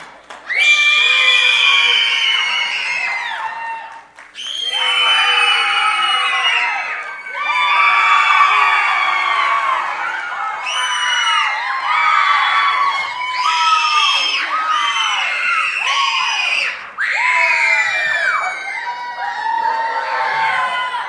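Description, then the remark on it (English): A large audience cheers and screams loudly for contestants, competing to give the loudest cheer, in sustained bursts with brief dips between waves of shrill, high-pitched yelling and whooping that fill the whole stretch. “And we're going to see who gets the loudest cheer, okay?”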